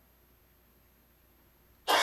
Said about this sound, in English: And this is a press conference he was doing and someone coughs.